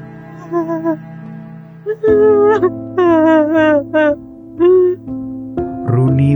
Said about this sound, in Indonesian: Tapi kenapa aku malah sedih? Runi kembali tenggelam dalam tangisannya.